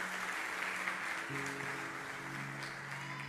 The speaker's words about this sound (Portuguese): Você não pode dar uma salva de palmas ao nosso Deus por isso, não? Essa é uma demonstração de adoração ao nosso Deus.